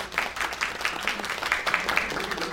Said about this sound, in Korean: 여러분이 동의를 아무래도 좀 해주셔야. 네, 여러분 일단 박수 한번 주세요.